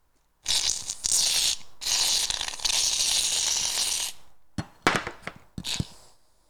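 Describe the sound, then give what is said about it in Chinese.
A second round of shaving foam being worked into a marshmallow iceberg butter foam slime: a long, airy crackling hiss that swells and pauses, then a few sharp, wet squelches and pops. No one speaks. “好啦，接下来加入第二轮刮胡泡”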